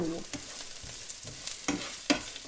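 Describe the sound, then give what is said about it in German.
Pan vegetables sizzle in a frying pan with a steady hiss, punctuated by several scraping, clattering stirs of a utensil against the pan, fairly quiet, no talking. “Mein Pfannengemüse ist mittlerweile, ich sag mal, fertig.”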